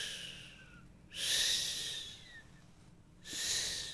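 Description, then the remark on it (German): A voice imitates ocean waves with two long, breathy hissing swells, each rising and fading, separated by a brief pause. Fairly loud, with no speech. “Hörst du die Wellen?”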